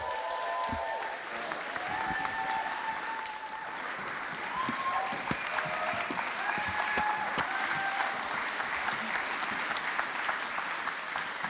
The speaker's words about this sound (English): So I wonder if you could just give a big round of applause for Austin, Anya, and Toby. Thank you.